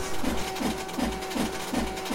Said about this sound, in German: Jetzt läuft der Drucker schon heiß